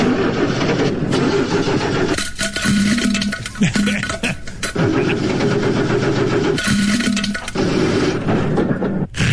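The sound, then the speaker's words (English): A rough, loud engine of a 1974 Oldsmobile car runs with a rapid, heavy knocking clatter, like a loose connecting rod, the rhythm surging and dipping as the revs change. “it almost sounds like you done lost a rod, what it sounds like to me.”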